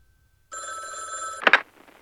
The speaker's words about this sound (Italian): Ah, eh, scusate, squilla il telefono. Speriamo non sia Ennio.